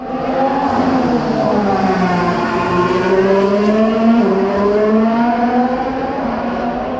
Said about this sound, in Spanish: Si me permiten, eh, me gustaría ponerles eh, una grabación que tomé del motor de Nick De bryce dando vuelta en la última curva Nigel, Nigel Mansell del circuito del, del Autódromo hermano Rodríguez.